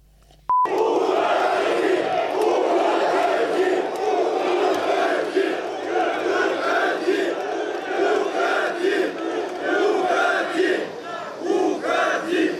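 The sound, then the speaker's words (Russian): A crowd shouts together loudly and steadily, a dense roar of many voices chanting in rough unison that starts abruptly and holds for about twelve seconds. “Я сказал все, можете кричать «Уходи».”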